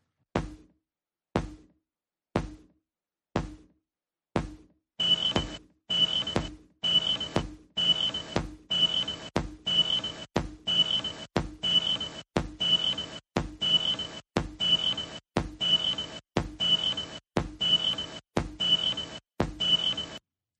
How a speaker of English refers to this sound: I think the perfect alarm would you for you would be like that steady beeping sound.